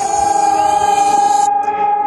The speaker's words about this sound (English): the sirens have just started here in Kharkiv. You can hear those.